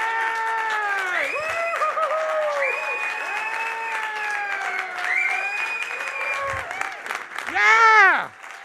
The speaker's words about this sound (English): Come on, just for a moment, let's give them a clap. I mean, I mean, if you were there, woo! like, yeah!